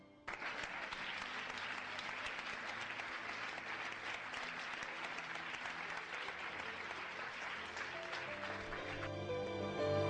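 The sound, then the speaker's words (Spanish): Sustained applause from a crowd paying homage to a great man who has died and to his work, a dense steady clatter of many hands clapping at an even loudness for about ten seconds, with no one speaking over it. “Por su obra y por su persona, le rendimos homenaje con este aplauso.”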